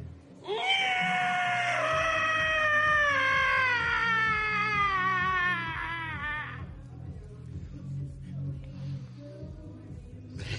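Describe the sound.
A man's voice lets out one long, loud, wavering squeal imitating a pig. It slides slowly downward in pitch for about six seconds before breaking off into quieter background noise.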